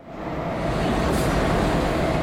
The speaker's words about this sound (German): Ich möchte Sie auch heute nicht anlügen. Wir sitzen schon seit ein paar Minuten im Zug äh, weil bis wir dann verkabelt sind und, und unseren Platz gefunden haben.